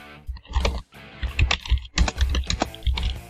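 Rapid, loud keystrokes clatter on a computer keyboard, a dense run of clicks and thuds in uneven bursts, with no voices.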